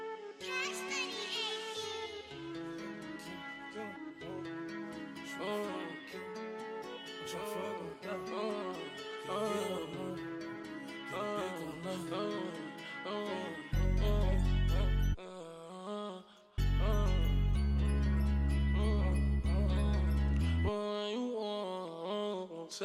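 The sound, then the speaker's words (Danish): A trap music track plays loud, a tinkling bell-like melody looping over beats, then deep booming bass hits come in after a brief drop, with no voices. “her kommer, hvad vi kan nå at høre af …, hvor … altså får besøg af … og …”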